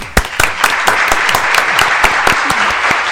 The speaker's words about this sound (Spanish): Un genio, por favor, fuerte el aplauso.